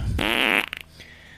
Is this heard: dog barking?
no